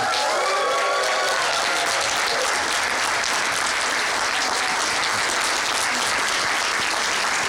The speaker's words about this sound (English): And now, give a huge applause to my friend Greg Sestero, even better.